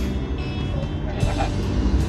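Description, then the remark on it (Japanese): Steady low rumble of road traffic in Hokkaido, Japan, a bus driving along just ahead, its engine drone continuous and fairly loud for the full couple of seconds, with faint voices mixed underneath. “前走ってるバスとか絡まないの。”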